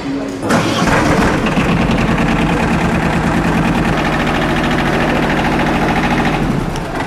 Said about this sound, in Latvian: demonstrē robota darbību, vispirms ieslēdzot elektrības, bet pēc tam dīzeļa režīmu, kas daudziem skaņas ziņā noteikti atgādinās traktoru. So now he's watching to us. And now we switch on the thermic one.